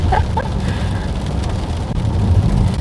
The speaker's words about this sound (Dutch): Ja, begin je nu meer te regenen. Misschien hoor je dat wel een beetje. Sorry daarvoor.